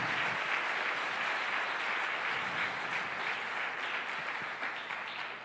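A crowd claps steadily and loudly for several seconds, a dense wash of many hands together that stays full throughout and only slightly eases near the end.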